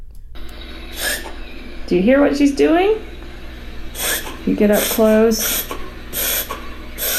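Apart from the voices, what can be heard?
dog reverse sneezing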